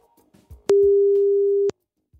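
A single telephone ringing tone as a call is placed to the HR consultancy Beljon Westerterp: one steady, mid-pitched beep lasting about a second, starting and stopping with soft clicks, after faint low rumbling and followed by silence.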